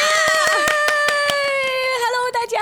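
Steady, rhythmic clapping, sharp claps at an even quick pace, sounding over a loud sustained musical tone that holds a bright, bending pitch throughout.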